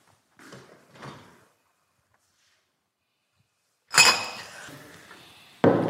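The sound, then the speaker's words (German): A fridge door opens with soft knocks and rattles as two beers are fetched, then the glass beer bottles clink and jingle loudly against each other for a couple of seconds, ending in a sharp clatter. No one speaks. “Ich hole noch zwei Bier.”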